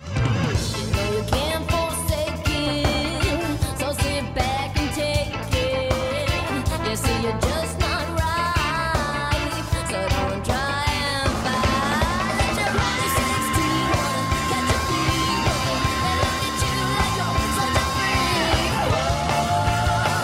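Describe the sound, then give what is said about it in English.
A raw, gritty-sounding song, the eighth track of an album, plays loud and continuous for the whole stretch, dense full-band instrumentation with a strained, shouted-sounding vocal riding over a driving beat. “this is a track uh, track eight, and it's called …”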